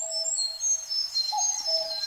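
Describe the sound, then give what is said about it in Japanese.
A Siberian blue robin sings clear, high whistled phrases and trills that ring out continuously, with a steady lower tone running underneath and no voices, in a forest on the Kirifuri Highlands before dawn, in morning fog. “霧降り高原の夜明け前朝霧の中から響いてくるコルリのさえずりが森の自然の変化を教えてくれました”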